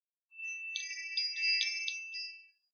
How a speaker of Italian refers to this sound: Il suono di campanelle a vento proveniente dal cellulare l'avvisò che Adam era pronto a proseguire dal vivo la loro conversazione